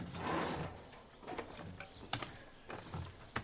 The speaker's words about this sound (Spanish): Mechero.